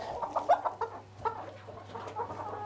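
Several hens cluck in short, irregular bursts, a busy run of clucks early on that thins out, then picks up again, over a steady low hum.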